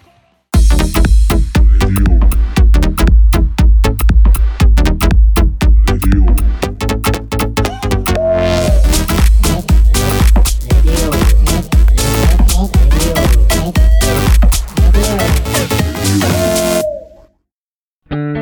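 A loud, full band song played on a radio programme, with punchy rhythmic beats, dense distorted instrumentation and strong bass, continuing steadily before cutting off abruptly near the end.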